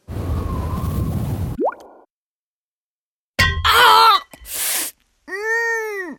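A heavy gold bar accidentally dropping onto someone's foot, in a Euromillions radio advertisement: a rushing whoosh, a brief silence, then a loud pained yelp, a short burst of noise, and a drawn-out wailing moan with wavering pitch.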